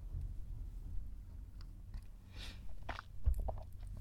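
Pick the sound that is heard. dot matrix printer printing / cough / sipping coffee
sipping coffee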